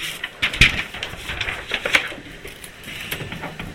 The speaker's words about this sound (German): Was tut der da? Der schreibt mit einem Kuli.